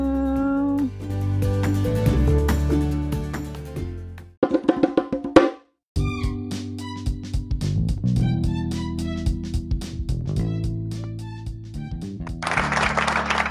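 Bongo drums played in quick, steady rhythmic hits over sustained tonal music, fairly loud throughout, with a short break partway through and a bright, hissy wash at the end.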